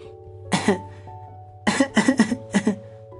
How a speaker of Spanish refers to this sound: Iba a buscarlo, pero como no dejabas de hablarme, insistió en su tos para darle al menos remordimientos.